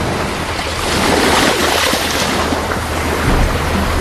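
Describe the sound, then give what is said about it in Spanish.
Steady ocean surf washes and roars, swelling in a couple of broad surges as waves break, with a low rumble underneath and no voices. “Y este sábado vamos a estar en otro azul. En el mar.”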